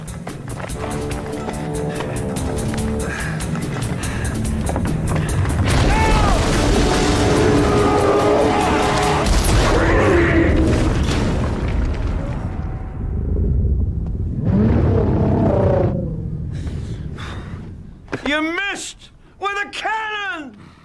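A heavy, cannon-like blast from a big muzzle-loading punt gun booms out amid dense rumbling commotion, followed later by sharp, high screeching cries.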